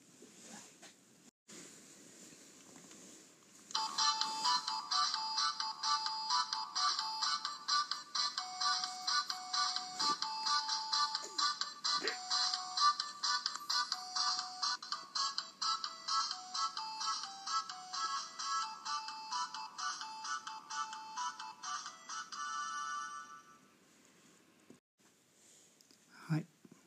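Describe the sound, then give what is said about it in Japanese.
A supermarket customer-calling promotional jingle played by a Yobikomi-kun machine, a device with a speaker that has a small face drawn on it: a bright, beepy electronic melody of rapid repeating notes that plays steadily for about twenty seconds, with faint background noise before and after and no talking. “ちょっと長い曲でしたねそれにしてもいい曲ですよねこれはそうスーパーの曲ですこれね呼び込みくんっていうらしくてなんかねちっちゃい顔の描いたスピーカーのついたそういう機械なんです”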